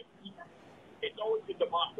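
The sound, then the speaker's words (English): A radio plays in the background over a phone line, thin and muffled, with faint murmuring at first and then louder bursts of voice-like sound in the second half. “You turn the radio off when you're calling the secret Textoso line.”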